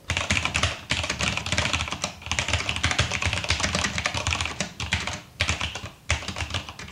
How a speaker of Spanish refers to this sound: Pero una cosa, mm, ¿eso es el teclado? Sí, eso es el teclado. Y es el que no hace ruido. Ese es el que no hace ruido.